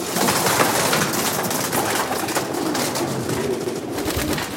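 A dense chorus of pigeons cooing, overlapping murmurs and throaty calls filling the space continuously, with rustling and shuffling of many birds.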